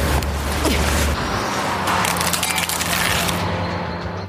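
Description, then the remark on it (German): A phone thrown from a car skids and scrapes across asphalt in a gritty, rattling slide that lasts about four seconds, loud, with a low engine rumble underneath at the start. “von dem ich dachte, so schlittert ein Handy über den Asphalt, das aus einem Auto geworfen wurde.”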